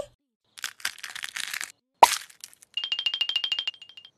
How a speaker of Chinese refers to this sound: 啊，鸡蛋要孵化了！叽叽，一只小鸡，叽叽，两只小鸡，